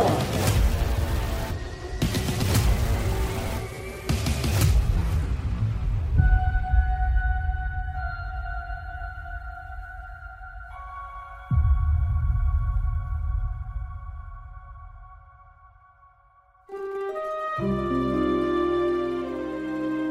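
Moody, cinematic Godfather-like background theme music: a few loud, crashing hits open, then long sustained notes hold and shift slowly before a fuller, richer chord swells in near the end. No one speaks.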